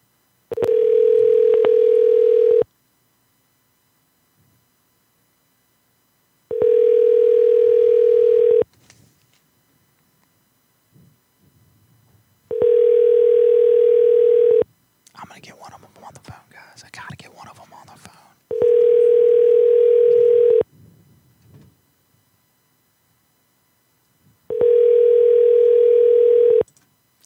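A telephone dial tone during a phone call sounds in five steady bursts, each about two seconds long and separated by a few seconds of near silence. Faint rustling or murmuring fills one of the gaps.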